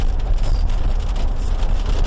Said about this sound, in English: You can probably hear it raining in the mic.